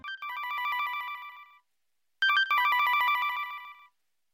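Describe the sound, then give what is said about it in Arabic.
A telephone rings twice with a bright, trilling electronic tone for an incoming call from an unrecognised number. Each ring lasts over a second with a short pause between. Loud, with no voices. “لم تميز رقم المتصل أرادت أن تخرج من الغرفة لتتلقى المكالمة لكنها قررت أن تستقبل المكالمة في الحمام بدلا من ذلك.”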